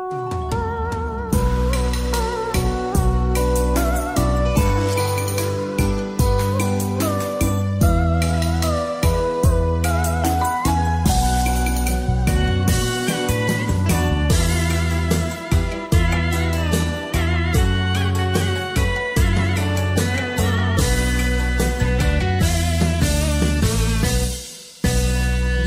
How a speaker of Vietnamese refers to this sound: còn giờ thì chúng ta cùng lắng nghe ca khúc bông bần kỷ niệm do diễm trang trình bày